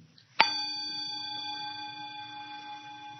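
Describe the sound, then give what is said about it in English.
A single meditation bell is struck once, giving a sharp metallic onset followed by a long, steady ringing tone with several bright overtones that sustains and slowly fades, heard alone. “When you're just with the experience, there's no bell, there's no ear, there's no inside, there's no outside, there's just hearing.”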